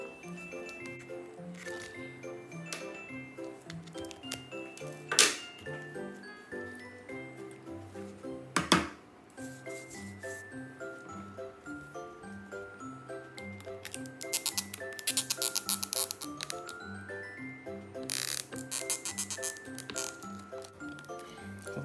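A welt awl (sukui-bari) that is not yet polished squeaks and creaks as it is drawn through thick leather, several grating bursts over steady background music, with quieter rubbing and handling noises between them.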